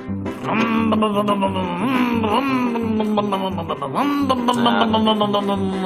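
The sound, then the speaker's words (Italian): A voice imitates the engine of a vintage R4 car starting up: a steady, pulsing low hum with several rising, whining swoops like revving, loud and continuous for about six seconds. “fa all'incirca così accendiamo il motore della R4.”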